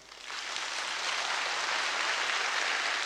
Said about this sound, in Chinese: 哦，稍等，掌声稍等。